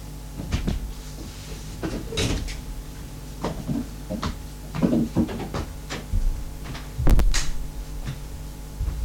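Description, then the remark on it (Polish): A door is opened and closed with a series of wooden knocks and thumps, a louder clunk near the end as it shuts, all over a steady low hum with no talking. “Odłożę słuchawki, otworzę i zamknę drzwi.”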